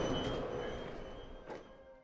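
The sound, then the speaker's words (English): Steady low rumble and hum of a moving train approaching Lewes, heard from inside a carriage, with constant mechanical drone, faint tonal whines and brief rattling bursts; no voices. “We are now approaching Lewes. Please mind the gap between the train and the platform.”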